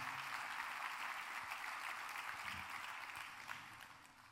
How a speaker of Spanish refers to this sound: Dale un aplauso al Señor antes de sentarte.